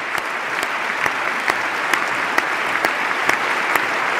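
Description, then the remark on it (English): A single pair of hands claps slowly and steadily, roughly twice a second, close to a microphone, standing out over a continuous wash of crowd applause. “It's a slow clap too.”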